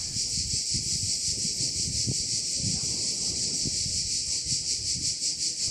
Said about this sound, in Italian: ma so che le cicale sono una gran bella distrazione rispetto alle sue parole.